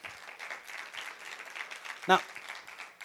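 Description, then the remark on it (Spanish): A church audience applauds loudly for the Lord, producing a dense, steady wash of clapping mixed with voices. About two-thirds of the way through, a single sharper burst stands out. “Un aplauso fuerte, Señor. Hazlo fuerte al Señor.”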